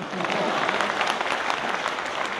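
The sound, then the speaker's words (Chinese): Steady audience applause encouraging a performer who is about to sing, a dense, even patter of many hands clapping at a consistent loudness, with some voices mixed into the crowd noise. “要不您再鼓励鼓励我吧？”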